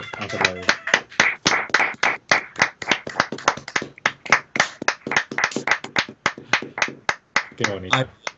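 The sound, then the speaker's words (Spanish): Steady, rhythmic clapping, sharp and fairly loud, repeating at a quick even pace for several seconds, with a voice briefly speaking at the start and again near the end. “Y hay que aplaudir.”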